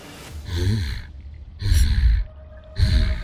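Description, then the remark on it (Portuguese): A person imitates a bear with three loud, breathy huffs and snorts, each a rough, throaty burst of air separated by short pauses. “Ela começa a bufar e fazer barulho de urso.”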